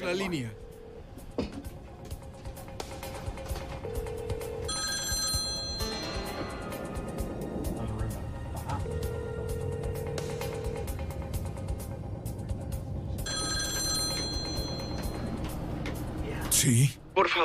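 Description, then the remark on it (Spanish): A telephone rings in two separate bursts several seconds apart as a negotiator tries to reach people by phone in a hostage situation, each a bright, trilling electronic ring over a steady low rumble of background noise with faint, indistinct voices. “Un negociador aseguró una línea e intentó contactarlos por teléfono.”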